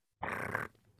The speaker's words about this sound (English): That was a cat.